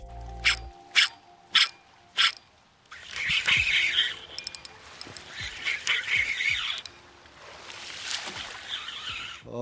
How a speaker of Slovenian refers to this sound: v ribniku opekarna nahaja polno podvodnih ovir, kar pomeni, da se vaba vanje lahko tudi zapne. In tudi nama se je med lovom. Izgubila sva tri. Reševanje vabe se sliši tako, vabo pa je po neuspelih poskusih potegov na kopno treba nadomestiti z novo.